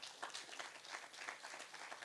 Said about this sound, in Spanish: Den un aplauso al Señor esta mañana.